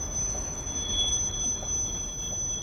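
A metro train rumbles steadily while its wheels let out a sustained, high-pitched squeal on the rails, continuous throughout, with no voices.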